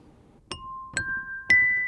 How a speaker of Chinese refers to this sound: 来听听看哦。我们先听一样原来的声音，原来这三个音。